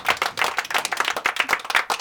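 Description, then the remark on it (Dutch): A small group claps steadily for about two seconds, a dense patter of overlapping handclaps at moderate volume with no voices. “Kijk eens aan. Applaus.”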